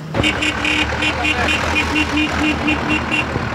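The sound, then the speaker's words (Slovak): Heavy tractor engines rumble steadily as a convoy of tractors with a police escort leaves Tyrčovo nábrežie, while a rapid series of evenly spaced, high-pitched beeps repeats over the loud, continuous drone. “Traktory z prievode policia odchádzajú z Tyrčovho nábrežia.”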